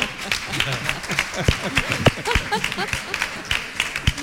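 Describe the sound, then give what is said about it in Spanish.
A studio audience applauds steadily for several seconds, a dense wash of many hands clapping at once, with a few scattered voices or cheers mixed into the noise. “bueno, un aplauso.”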